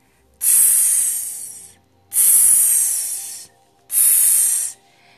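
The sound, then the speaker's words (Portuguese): Three sharp, loud hisses of water dousing fire, each lasting over a second with a short pause between, fading slightly at the end of each burst. “Faziam as chamas furiosas, enquanto as lágrimas de compaixão da águia as apagavam uma por uma, até finalmente o incêndio se extinguir completamente”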